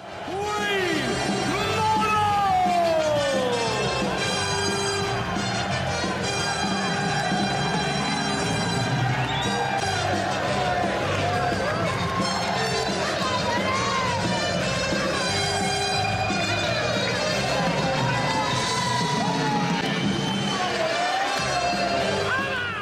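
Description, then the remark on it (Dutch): A packed arena roars with sustained cheering and whooping while a player shouts excitedly over the din during his walk-on entrance, the noise staying loud and dense throughout. “Je hoort hem dus inderdaad ook schreeuwen. Hij neemt je helemaal mee. En de sfeer is gewoon echt lekker.”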